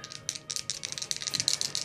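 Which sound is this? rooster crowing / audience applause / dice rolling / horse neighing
dice rolling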